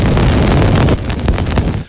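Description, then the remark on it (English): Cassini space probe recording as it flies through Saturn's rings: a loud, dense wash of rumbling static, then a sparser stretch of sharp crackles and pops, like dust hits, before it cuts off. “That is the sound of the Cassini space probe.”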